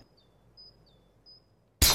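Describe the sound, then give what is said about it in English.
A Stateside Vodka glass bottle suddenly smashes at the very end, a loud, sharp burst. Before it there is near-silence with a few faint, high-pitched tones. “You're telling me that bottle is cut in half?”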